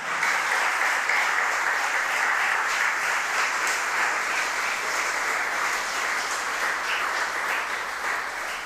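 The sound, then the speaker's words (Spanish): Sustained applause from a crowd at a Christian church service, given as praise to God as King, a dense, steady wash of many hands clapping at an even loudness for the whole stretch, with no voices standing out. “¿Cuánto le dan un aplauso al rey?”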